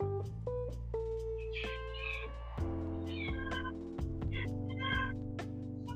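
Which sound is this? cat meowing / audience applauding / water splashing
cat meowing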